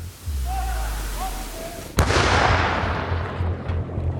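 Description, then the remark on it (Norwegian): A single loud shot from a Ukrainian artillery cannon, its first shot, cracks out mid-clip, followed by a long rolling boom that slowly fades. A low engine-like rumble hums underneath before and after the blast. “Med en gang denne ukrainske artillerikanonen begynner å skyte, så vil russerne svare.”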